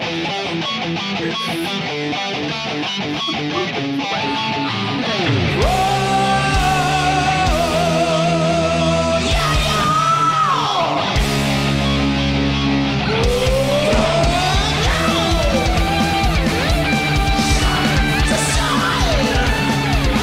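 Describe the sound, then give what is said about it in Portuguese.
Instrumental closing theme music with no voices: a pulsing rhythmic intro gives way after a few seconds to a louder, fuller section with sustained chords and sliding, bending lead notes. “E infelizmente tá chegando a música de finalização, que no, no retorno não teve, mas esse vai ter.”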